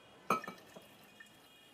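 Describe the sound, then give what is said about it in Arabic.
A drinking glass gives a soft clink, followed by a few quick, quiet splashes of water as a glass of water is fetched. Brief, with no talking, against a faint hush. “هاتيلك كباية مي جبتلك المي حماتي”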